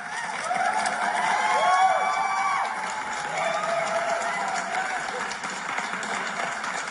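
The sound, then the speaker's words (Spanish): A steady burst of applause for the guests, with crowd cheering and excited voices mixed in, holding at a fairly even loudness for about seven seconds. “Un gran aplauso a nuestros invitados.”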